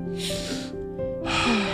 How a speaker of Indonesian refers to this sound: Nah, menurut aku ya, satu hal yang bisa membuat lu apa terbebas dari overthinking tuh um, coba tarik nafas dulu dalam-dalam.